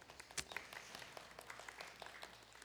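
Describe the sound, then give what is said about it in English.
Soft, scattered polite clapping from a small group of a church audience, a golf clap of light, irregular hand claps that stay quiet throughout, with one slightly sharper clap early on. “You got a golf clap.”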